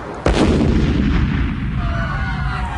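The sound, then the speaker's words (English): A single sudden, loud blast from a thrown dynamite bomb at the Haymarket in Chicago bursts in near the start, then gives way to a deep, rolling rumble that lingers and slowly fades, echoing outdoors. No voices. “This is the site of the first dynamite bomb ever thrown in peacetime.”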